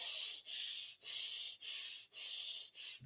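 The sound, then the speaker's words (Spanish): A voice imitates the heavy breathing of an angry person: about six rapid, forceful huffs in a steady rhythm, each a loud, hissy rush of air with only brief pauses between. “tú puedes darte cuenta que cualquier persona en cualquier parte del mundo, no importa el idioma que hable, cuando está enojado, va a ser como lo mismo, quijada apretada, ojos cerrados, puños apretados, la respiración va a ser como”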